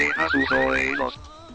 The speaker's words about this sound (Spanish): Atención, atención, alarma. Y salta la alarma.